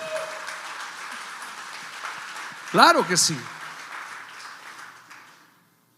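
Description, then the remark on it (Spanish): An audience applauds the Lord in a steady, dense wash of clapping for about five seconds before fading out, while a single voice briefly calls out over the noise. “¿Cuánto le pueden dar un aplauso al Señor por esa palabra?”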